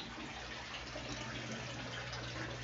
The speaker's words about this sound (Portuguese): Máquina de lavar fazendo full barulhos novamente. Não se incomode, não pense que eu estou no banheiro, pois eu não estou.